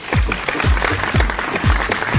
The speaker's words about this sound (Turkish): Evet, çok doğru bir söz. Kocaman alkış.